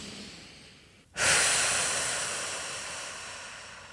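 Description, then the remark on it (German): A soft breath, then a sudden, long, airy deep breath that starts strongly and slowly fades over several seconds, with no talking. “Und dazu kannst du, wie aus den ersten Folgen schon gewohnt, dich auch am Anfang erstmal wieder mit deinem Atem verbinden, mal tief atmen. Drei tiefe Atemzüge sind sowieso nie verkehrt.”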